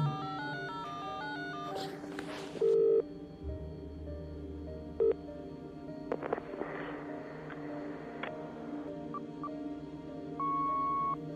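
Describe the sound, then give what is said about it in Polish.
Brief electronic telephone tones sound over a steady humming, tonal background: a couple of short beeps, then a longer held tone near the end, as a phone call is placed to a number that is unavailable. “Piękne tutaj jak przykłada telefon do ucha, wszystko fajnie jest zrobione, a niestety ten numer, numer jest niedostępny”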